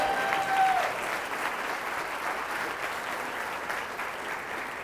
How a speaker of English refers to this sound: And this last spring, our women's golf team won their fourth consecutive national championship, and they have five total. Now with the applause.